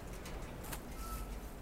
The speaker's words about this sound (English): Watching the dirt. Some bird over there.